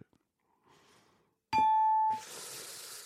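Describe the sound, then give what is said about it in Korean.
A bright, loud chime rings out with a sustained bell-like tone, the ding-dong-dang correct-answer chime, followed by a burst of noisy hiss or applause-like sound, after a faint quiet start. “3282님, 딩동댕 선물 드립니다.”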